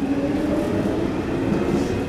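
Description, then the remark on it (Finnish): A metro train pulls away from Kulosaari station, its steady low rumble and hum continuous, with no one speaking. “Ja no nyt tää metro lähti Kulosaaresta.”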